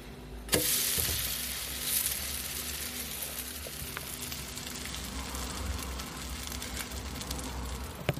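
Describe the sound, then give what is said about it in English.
A pancake sizzles steadily in a frying pan, ready to be flipped, a continuous crackling hiss that jumps up sharply near the start and then carries on evenly with scattered pops and no talking. “Es brutzelt.”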